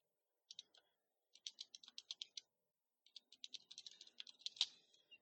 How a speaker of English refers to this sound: I'm sorry, I'm typing, adding to my notes, and ad libbing as I proceed all at the same time. I'm trying to do it at the same time.